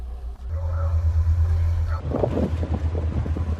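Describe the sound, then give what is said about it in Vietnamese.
Waves slap against the hull of ship 571, sailing from Cam Ranh naval port toward the Truong Sa islands of Vietnam in rough seas and strong wind, over a steady, deep engine rumble and wind noise, with the choppy splashing becoming louder and busier partway through. “Càng đi xa đất liền, tiếng sóng vỗ mạnh hơn, tiếng nói cười ít dần.”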